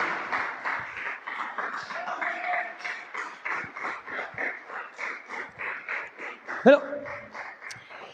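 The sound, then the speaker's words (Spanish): A church audience applauds steadily for several seconds as praise to God, dense clapping with a loose rhythmic pulse, a few voices calling out over it and one sharp louder cry near the end. “¿Qué tal si usted le da un aplauso entonces al Señor?”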